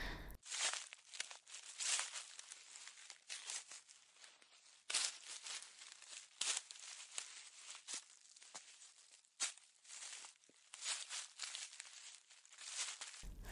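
Footsteps crunch and rustle through a thick layer of dry autumn leaves, a steady stream of crackling, papery crinkles close by with no voices.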